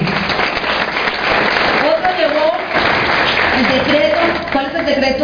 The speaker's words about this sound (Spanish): Un aplauso para esta familia.